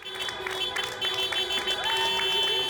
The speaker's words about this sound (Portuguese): E nesse momento tão difícil que vive a Europa, o Reino Unido se uniu num gesto comovente. Para os profissionais da saúde, gratidão e muitos aplausos. Todos pararam para prestar a homenagem